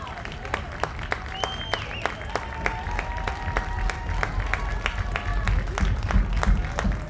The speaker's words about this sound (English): I think these are the middle fans making all this noise. It is.